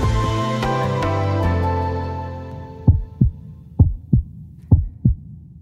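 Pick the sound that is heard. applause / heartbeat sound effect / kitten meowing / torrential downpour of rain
heartbeat sound effect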